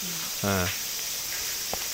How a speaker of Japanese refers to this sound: いや遠くの方にね、セミしぐれがちょっと聞こえるんですよ。このなんか深いこの木の葉っぱの向こうあたりにあ泣いてますね。泣いてます泣いてます。確かに泣いてます。そのセミしぐれの中のこの滝の音